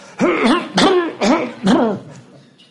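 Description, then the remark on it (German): Four loud, throaty coughs in quick, even succession, each a harsh voiced burst, alone with no talking, as if a man who has withdrawn behind curtains is performing the coughs. “Er zog sich hinter die Vorhänge zurück und hustete laut.”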